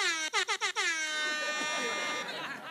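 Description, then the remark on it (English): A loud air horn blares in four quick, choppy bursts, then holds one long, steady blast that trails off near the end, harsh. “every time I put something off, I need like an alarm or something to go off.”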